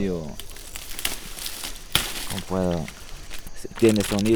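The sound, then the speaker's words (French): Dry leaf of a kind of plant reserved for shamans, crinkled and rustled by hand, a run of crisp crackling bursts, with a person's voice speaking briefly in between and over the crinkling. “Par exemple, avec cette feuille.”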